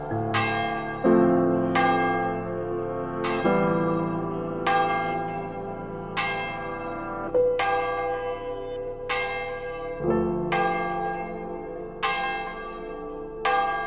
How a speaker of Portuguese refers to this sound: apesar da primavera, é o inverno que ainda toca no sino da freguesia.